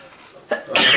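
A single loud sneeze: a short sharp intake of breath followed by a forceful, hissing burst of breath that carries through to the end, with no talking.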